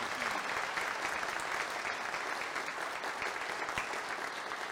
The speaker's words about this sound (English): No, we're about to give you all a big clap. let's give them a big applause for our baby dedication.